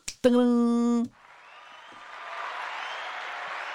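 applause

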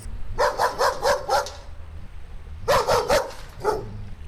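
dog barking

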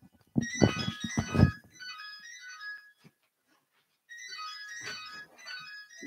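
mobile phone ringtone ringing

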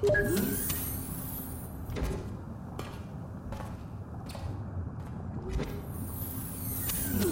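door opening

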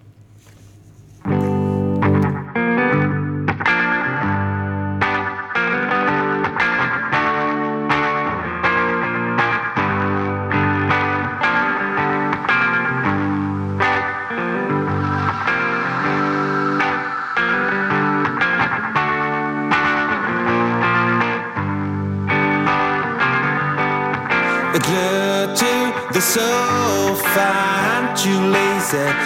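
music

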